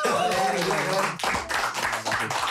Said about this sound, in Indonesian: Eh tepuk tangan dong.